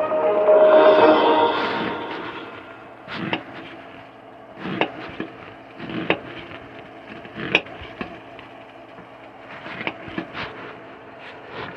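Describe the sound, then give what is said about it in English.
A knife chopping onions on a wooden cutting board: a brief rustling scrape at first, then sharp, irregular knocks roughly a second apart, with no talking. “Right, I'm chopping up onions.”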